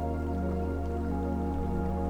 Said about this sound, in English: Hear the waves lapping against the side of your sailboat as it sails through the water hear the sound of the sail as the wind pushes against it.